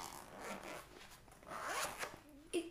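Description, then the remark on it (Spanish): The zipper of a 13-inch MacBook laptop sleeve is pulled open, its teeth rasping in a few uneven bursts over a couple of seconds, with a brief soft thump at the end. “Y, me encanta el ruido que hace cuando se abre.”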